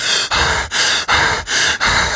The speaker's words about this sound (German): Oh, krass. Nee, ich glaube, die Leute haben jetzt genug Atmen und Gestöhne gehört, oder?